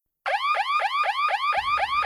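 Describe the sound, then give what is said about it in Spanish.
A loud electronic alarm whoops in rapid repeating rising sweeps, about four per second, starting abruptly after a moment of silence and continuing steadily with a low rumble joining near the end. “Alarma edición, alarma edición.”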